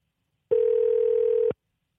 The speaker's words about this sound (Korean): 전화 통화를 통해서 들어보도록 하겠습니다. 1860님입니다. 자, 전화 가네요.